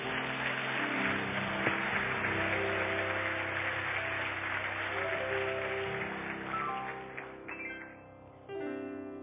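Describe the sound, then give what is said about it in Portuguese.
A church audience applauds the Lord loudly in the name of Jesus, a dense, steady wash of clapping that holds for about eight seconds with faint sustained tones beneath, then thins and drops off near the end. “Então aplaude o Senhor bem forte, em nome de Jesus.”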